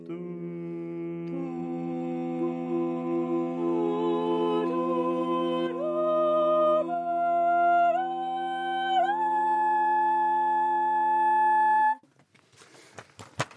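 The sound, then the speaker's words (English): A choir holds a steady low drone while voices step upward through the successive notes of the harmonic series up to the 10th harmonic, each new pitch entering every second or so, rising higher until the sustained chord breaks off abruptly. “And I mean, what, what we can do with the choir is we can, we can sing them for you if you like.”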